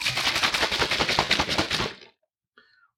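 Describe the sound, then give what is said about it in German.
A shaker bottle with 500 millilitres of water and 10 grams of a powdered dietary supplement is shaken hard in a rapid, steady rhythm of sloshing, rattling pulses for about two seconds, then it stops, followed by a brief faint sound. “Das heißt, man nimmt so einen Shaker, der wurde uns auch mitgeschickt, auch dafür vielen Dank, füllt 500 Milliliter Wasser rein, 10 Gramm des Pulvers, dann schüttelt man ordentlich durch.”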